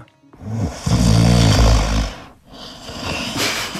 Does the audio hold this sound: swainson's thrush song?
no